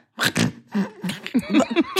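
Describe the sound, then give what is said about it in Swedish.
Someone imitates with their voice how a man snored while lying asleep: a raspy, breathy snort followed by a string of short, rough, grunting bursts over about two seconds. “Men nu somnar han innan mig och då låg han och snarka.”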